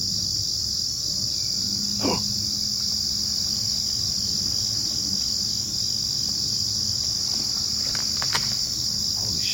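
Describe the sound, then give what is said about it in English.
A steady, high-pitched chorus of crickets fills the night air in the woods, recorded while camping, without pause, with a low hum underneath and a couple of faint clicks partway through. “Why are crickets so scary?”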